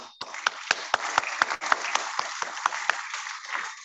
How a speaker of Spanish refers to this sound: Primero, porque hubo mucha gente que auspiciaron esta menorá, esta januquía, y merecen un gran aplauso.